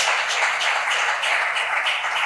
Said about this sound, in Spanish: ¿Por qué no le da un fuerte aplauso al Señor? Gloria a Dios.